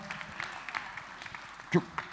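Scattered audience applause, a fairly soft, steady patter of many hands clapping, with one louder clap or thump standing out briefly near the end.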